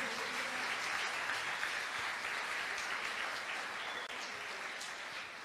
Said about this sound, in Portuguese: Você pode aplaudir a Ele nessa noite.